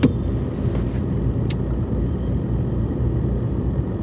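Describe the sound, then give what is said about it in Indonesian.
Steady low rumble of a car's interior while driving to pick up the speaker's mother, a constant engine and road drone filling the cabin with no speech, broken only by one faint click partway through. “gue actually uh, di mobil mau jemput ibu”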